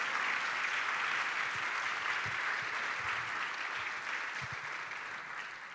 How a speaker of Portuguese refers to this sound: Aplauda o nome do Senhor Jesus, amado.